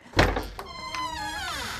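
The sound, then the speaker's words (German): A cupboard door is pulled open with a short knock and rattle, then its hinge lets out a long, wavering, high-pitched creak that fades out. No one speaks. “ich schaue jetzt mal in den Schrank.”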